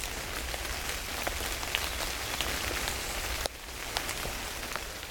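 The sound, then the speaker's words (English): Steady rain falls continuously from clouds, a dense hiss of drops pattering on a surface with occasional sharper taps standing out, moderately loud with no voices. “other clouds, you need to jump on top of them to make them rain.”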